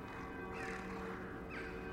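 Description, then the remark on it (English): A dense chorus of hundreds of blackbirds cawing, harsh overlapping calls rising and falling continuously, with two louder sweeping caws standing out above a steady ringing, tonal hum of bells sounding in the wind. “You hear cawing of birds and you look up, you see hundreds and hundreds of blackbirds, and their caws rise up as these bells make their noise in the wind.”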